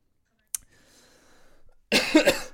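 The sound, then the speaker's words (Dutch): A brief click and a quiet murmur give way to a loud fit of coughing, two or three harsh bursts in quick succession at the end. “ik moet altijd een beetje hoesten als ik met jou aan het podcasten ben”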